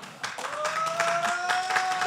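A crowd breaks into steady applause, many hands clapping in a dense, crackling wash that swells after a brief quieter moment and holds at an even level, with a faint sustained tone underneath.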